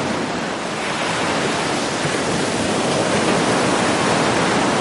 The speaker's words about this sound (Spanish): Cachita cada vez está más dentro y las olas empiezan a arrastrarla un poco.